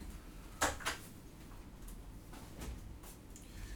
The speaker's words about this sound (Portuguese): É, deixa eu só encostar aqui a porta de novo que ele tá ventando agora.